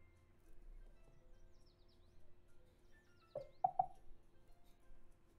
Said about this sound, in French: Ah, c'est mon réveil.